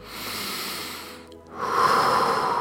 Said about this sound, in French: Tu vas commencer à prendre une première grande respiration, Inspirer par le nez,